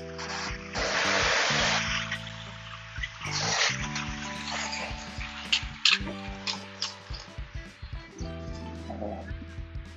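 Morning car traffic passes by on a road outdoors in two broad, rushing swells early on, with a low rumbling hum underneath and scattered quieter noises and faint clicks afterward.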